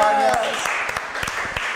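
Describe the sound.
A short burst of applause: a dense wash of clapping with sharp individual claps scattered through it, fairly loud and steady for under two seconds, with a faint voice briefly at the start.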